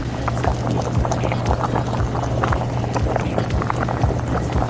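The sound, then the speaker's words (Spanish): A pot of bean broth boils steadily, recorded on a cell phone, with dense bubbling and irregular pops over a constant low hum, no voices present. “Miren, aquí lo que se está cociendo es el caldo, pero de frijoles.”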